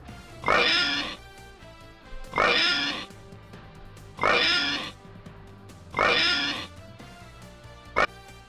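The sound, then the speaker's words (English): A person imitates a pig with four loud, drawn-out oinks spaced at a steady rhythm, followed by one short, clipped oink at the end, with no talking. “the new king of the oinks, has to say.”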